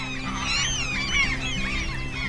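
A dense chorus of seabirds calling together outdoors among dunes, sandbars and salt marshes on the East Frisian North Sea island of Langeoog, overlapping honking and chattering cries filling the air steadily, with a constant low rumble of wind or surf underneath.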